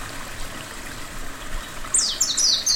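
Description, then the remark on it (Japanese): High, bright chirping calls of Ryukyu white-eyes, come to sip flower nectar as the blossoms fall into the river, burst in near the end over a steady background rush of flowing river water. “最後に琉球目白が花の蜜を吸いに来る頃すべての花が川に落ちる”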